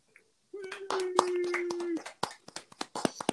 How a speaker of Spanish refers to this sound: Un aplauso Panamá.